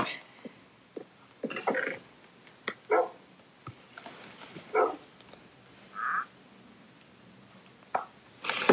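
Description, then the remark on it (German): A dog yelps several times after being hit twice, in short, sharp bursts spaced a second or two apart, with small clicks and thuds scattered between the cries. “So zweimal habe ich den Hund jetzt geschlagen.”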